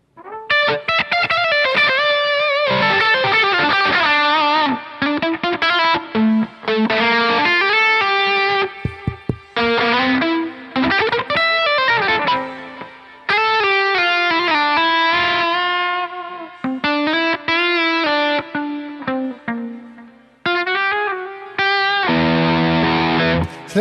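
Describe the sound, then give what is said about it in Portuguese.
Loud, distorted electronic noise from a guitar effects pedal that was accidentally stepped on: buzzy, harmonic tones that warble and slide up and down in pitch, running in bursts with brief gaps, with no talking over it. “Você pisou em algo do violão aí que está fazendo barulho.”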